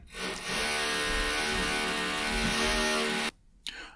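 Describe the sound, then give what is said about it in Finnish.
A neighbour's power drill bores into a wall, whirring steadily for about three seconds with a droning, slightly grinding tone, then cuts off abruptly, followed by a brief faint knock. No one speaks. “naapuri poraa seinää.”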